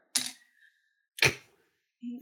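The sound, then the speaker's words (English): A small die, rolled for a game, clatters onto a hard floor: two sharp, bright clicks about a second apart, followed by a short, dull low knock, with no talking. “Oops, well that dice is gone forever.”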